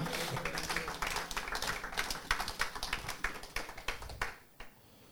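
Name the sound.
audience applauding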